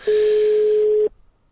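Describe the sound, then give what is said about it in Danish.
A single steady ringback tone of an outgoing telephone call, a clean mid-pitched beep lasting about a second, loud, then cutting off into near silence. “som I kan høre, så, øh, så ringer den. Så håber vi bare, han tager telefonen.”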